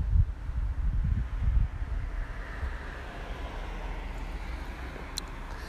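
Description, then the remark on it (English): Traffic rolling past outside: a deep, steady rumble with a broad hiss, swelling a little in the first couple of seconds, then settling into an even wash. No one speaks. “trying to time it out with the traffic going by, so that works.”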